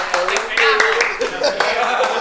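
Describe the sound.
A crowd applauds steadily for a couple of seconds, a dense, bright patter of many hands clapping, with faint voices and a few cheers mixed underneath.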